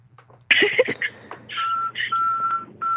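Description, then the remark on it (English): A truck's reversing alarm beeps in steady, repeated high-pitched tones, fairly loud and close, over a low engine hum. “You're next to a truck that's backing up, and I'm trying to soothe people it's like a construction zone.”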